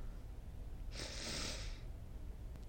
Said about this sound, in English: Okay, sorry, I'm still sniffling. That's really bad